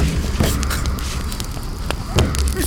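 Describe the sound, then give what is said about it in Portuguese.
A crackling bonfire burns with a steady low roar, broken by a few sharp pops and snaps scattered irregularly, fairly loud. “Bote mais lenha na fogueira!”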